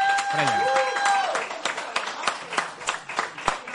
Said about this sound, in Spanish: Un aplauso, un aplauso para ellas.